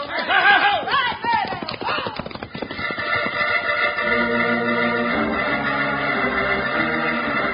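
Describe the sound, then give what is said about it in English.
Horses whinny and gallop off, a quick rush of clip-clopping hooves over a few seconds, before steady orchestral music takes over and holds to the end; riders in a western drama set off on horseback, one horse called Buckshot, to follow the trail of Dalton's gang's horses. “Let's follow the trail of that bunch of horses Dalton and his men rode.”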